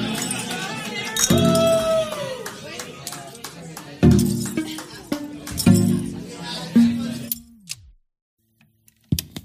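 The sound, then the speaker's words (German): Glass clinks and clatters as someone fetches a glass of water, several sharp ringing knocks spread over a few seconds, with faint murmured sounds between them, then a brief silence and a final small click. “Ich werde mir auf jeden Fall beide Songs gleich mal anhören, während ich mir ein Gläschen Wasser hole.”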